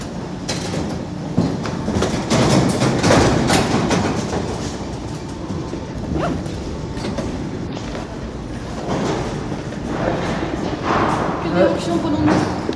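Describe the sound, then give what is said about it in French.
A Paris metro train on the Château de Vincennes to La Défense line rumbles along steadily and loudly underground, with rhythmic clacking of wheels over the rails and occasional thuds. Indistinct voices can be heard faintly beneath the noise. “On va prendre, c'est quoi C'est Château de Vincennes, non, c'est la Défense.”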